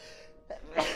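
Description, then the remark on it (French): A loud sneeze: a short intake-like burst, then a sharp explosive blast of breathy noise, with no one talking. “À tes amours”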